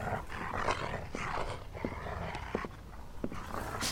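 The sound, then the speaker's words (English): Low, rumbling growls from a pair of wolves, sustained, with harsher snarling bursts rising and falling throughout and no talking over them. “Oh fuck, there's two of them.”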